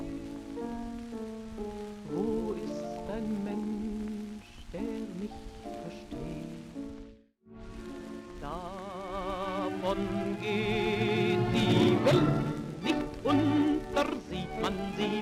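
A 1940s German schlager song with a woman singing over a lush orchestra, her voice warm with vibrato. The old recording sounds crackly, pauses briefly midway, then swells louder toward the end.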